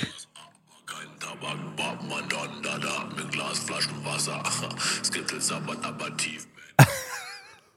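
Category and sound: rap song played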